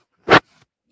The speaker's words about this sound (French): Une bonne respiration.